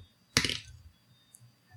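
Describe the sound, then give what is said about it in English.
A die is rolled on another player's behalf, rattling and clattering across a hard surface in one sharp burst that quickly dies away and lands on a five, then a single faint tick follows. No one speaks. “so I will roll on your behalf.”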